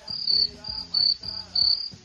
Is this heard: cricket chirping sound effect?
yes